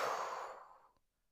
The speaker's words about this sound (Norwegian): Så vi puster inn en gang til. Og så puster vi ut igjen. Og når vi puster ut, så tømmer vi hodet for tanker.